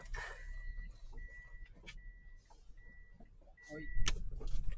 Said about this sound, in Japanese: あ、あ、車来た、車来た。